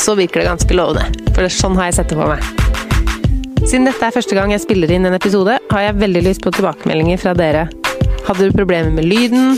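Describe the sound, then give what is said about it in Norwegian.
A man talks steadily while soft background music with sustained tones plays quietly underneath his voice throughout. “Men hvis du hører musikk i bakgrunnen nå”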